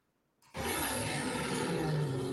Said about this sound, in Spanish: Escucha Es un, es un gruñido, güey. Escucha, por favor.